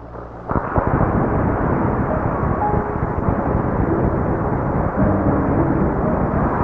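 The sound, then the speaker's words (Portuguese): An audience applauds loudly and steadily at the Brazilian presidential handover ceremony, as President Emílio Garrastazu Médici places the presidential sash on General Ernesto Geisel; dense clapping that starts suddenly after a brief moment and carries on for about six seconds, sounding muffled and thin like an old recording. “Aplausos do público presente ao senhor Emílio Garrafa Azul Médici, presidente do Brasil, de Mexicante coloca a faixa presidencial do general de exército Ernesto”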